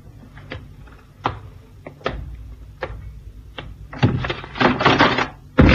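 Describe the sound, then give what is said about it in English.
A wooden trap door in a corner thuds and knocks as someone disappears down it, with several spaced dull hits followed by a louder cluster of bangs and a final heavy slam near the end, without talking. “came under the bridge, somebody did a disappearing act down the trap door.”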